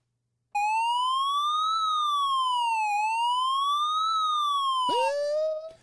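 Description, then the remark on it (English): A loud police siren wails alone, its pitch sweeping slowly up and down in two long cycles before abruptly glitching and dropping off near the end. “Tony, sound the alarm.”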